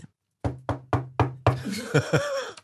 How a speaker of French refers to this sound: toc toc, y a quelqu'un mais qui est-ce qui vient frapper à ma porte alors qu'il fait toute nuit